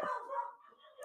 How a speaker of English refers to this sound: Um, so, and I'm really sorry if you can hear my dogs barking in the background. I have three corgis, and that is all they do.